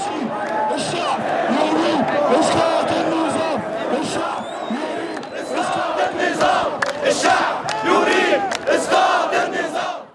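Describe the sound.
A large Arab Spring protest crowd chants an Arabic slogan together, "the people want the fall of the regime", a loud, dense mass of voices with rising rhythmic surges that stays continuous for the whole stretch.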